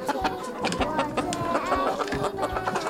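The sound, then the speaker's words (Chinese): Several hens cluck busily, a dense stream of short, clipped clucks overlapping in an uneven rhythm, steady and fairly loud for the whole stretch with no talking, as the hungry hens, just let out to run around, return to their freshly cleaned coop to eat lunch. “而这些母鸡刚刚被放到外面去跑来跑去，跑一跑肚子也饿了，看到它们的窝变得干净了，一只只就开开心心地跑回了窝里吃午餐了。”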